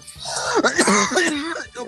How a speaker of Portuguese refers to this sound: A tosse, a tosse do velho até voltou, mano.